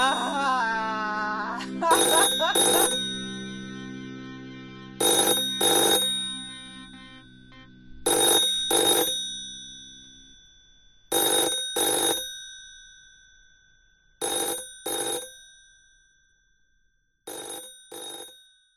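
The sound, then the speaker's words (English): An old-style telephone bell rings in a steady double-ring pattern, about six paired bursts spaced a few seconds apart, loud with a sustained tone beneath at the start, no voices. “I hang up the phone. It immediately begins to ring.”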